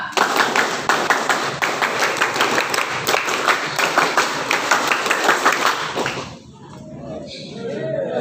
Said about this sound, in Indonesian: Dengan mengucap Bismillahirrahmanirrahim, kegiatan persami gugus pangkalan SMP Darussalam dinyatakan dibuka. Dua kali tepuk pramuka.